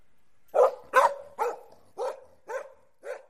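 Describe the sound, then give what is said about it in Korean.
A neighbour's wolfdog barks angrily while chasing someone, six loud, sharp barks in a steady rhythm about half a second apart, ringing all around, with no one talking. “화가 단단히 난 듯 사방이 쩌렁쩌렁 울릴 정도로 지저다는 통에 귀가 먹먹할 지경이었다.”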